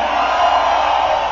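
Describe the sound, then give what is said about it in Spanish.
A large crowd roars and cheers in a dense, continuous wall of shouting, loud and steady throughout the short moment, an audience at a live concert at the Vive Latino festival in 2016. “Un grito chingón que nos escucha hasta este canal.”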